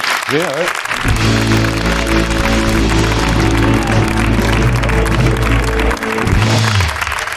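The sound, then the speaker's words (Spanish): Sparse, half-hearted audience applause as a rapper is brought on, a thin patter of clapping running under a loud burst of entrance music with a deep, sustained bass line. “Tímido aplauso, eh, También te has fijado, ¿no?”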